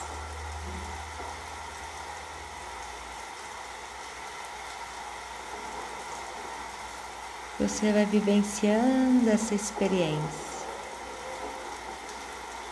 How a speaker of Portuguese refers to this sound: E então essa chuva vai engrossando, engrossando, e você ao longe olha e começa a ouvir o som da chuva, o barulho, os trovões.